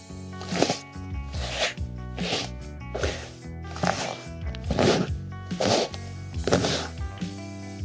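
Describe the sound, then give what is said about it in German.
A bare hand pats an old, creased leather sofa to imitate footsteps: about seven soft, thudding slaps at a steady walking pace, each with a faint leathery creak, alone over a quiet background. Recorded with a Rode NTG 4 microphone. “Wir imitierten mit der nackten Hand Schritte auf unserem Ledersofa.”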